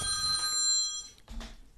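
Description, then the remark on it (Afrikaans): A telephone rings with a steady, high electronic tone lasting about a second, then cuts off, followed by a brief rustling thump. No one speaks. “Wil jy daai gou vat? Nee, toe maar, toe maar ek sal terugbel.”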